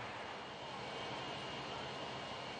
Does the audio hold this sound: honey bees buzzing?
no